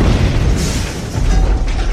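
A car smashing through a building wall: a loud, heavy booming crash with deep rumble and crunching debris noise that stays intense for about two seconds, with no voices.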